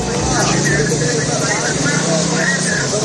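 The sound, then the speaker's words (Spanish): Busy outdoor ambience at the entrance of Nasser hospital in southern Gaza: a constant loud wash of many overlapping voices and the rumble of vehicle engines, with no pauses. “Este es el sonido de la puerta del hospital Nasser en el sur de Gaza que nos llegaba hace unas horas.”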